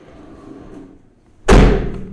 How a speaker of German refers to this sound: Er ist gerade voll laut die Tür zugeknallt.